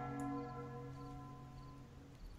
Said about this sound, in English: You hear the ringing of a bell.